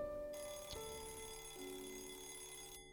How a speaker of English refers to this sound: the shrill sound of Craig's vintage alarm clock could be faintly heard, like a distant fire alarm